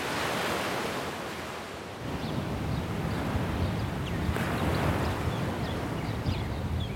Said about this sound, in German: Blauer Himmel, die Wellen des Mittelmeers schwappen an den Sandstrand des Dor Beach südlich von Haifa.